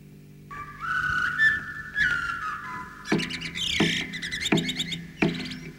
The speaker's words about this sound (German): Jetzt die vermoosten Flöten. In aller Frühe kann man schon ihren flötenartigen Gesang hören.